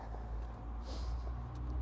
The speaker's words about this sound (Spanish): este casi no hay nadie, lo que pasa son uno que otro carro pero gente, nada.